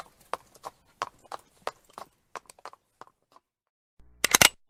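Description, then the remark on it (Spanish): Horse hooves clip-clop in a steady walking rhythm as a rider leaves on horseback, growing fainter as the horse moves away, followed by a short, louder burst of noise at the end. “Su asistente le ayudó a subir a caballo. Se fue cantando.”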